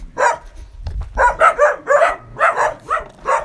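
Dogs bark in a quick run of about eight sharp, loud yaps at an uneven rhythm, with no one talking over them.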